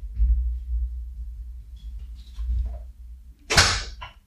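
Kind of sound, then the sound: household object, door being shut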